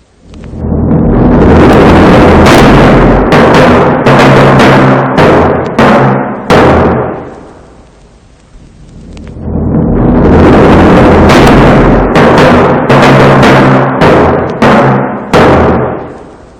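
In Prokofiev's symphonic fairy tale Peter and the Wolf, timpani strike out sharp, booming blows imitating gunshots ringing out across open country, in two loud bursts of rapid, irregular hits that swell from softer to louder, with deep resonant rumbling between the strokes and no voices.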